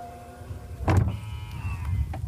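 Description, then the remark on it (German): A powered car tailgate whirs shut after a button press: a steady electric motor hum with a short mechanical clunk near the start and a soft latch click at the end, no voices. “So, jetzt drücken wir nochmal auf den Knopf, dann machen wir das Ganze zu”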